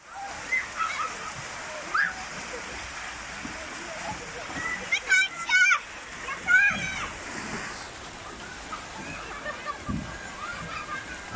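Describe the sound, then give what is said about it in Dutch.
Children's high voices shout and squeal over a steady wash of splashing water, with busy, lively activity throughout and a few louder bursts of excited calls. “Nou, ik, ik, hoop dat iedereen nu een, een heel prettig idee eerst eh, kreeg eh, van uh, vrolijke plek waar kinderen spelen met water.”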